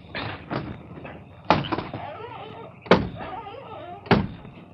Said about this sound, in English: We'll close the window and the shutter so nobody will be suspicious.